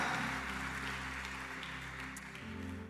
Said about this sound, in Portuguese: e a igreja diz amém e amém, e dê um aplauso ao Senhor, porque Ele é digno. Aleluia!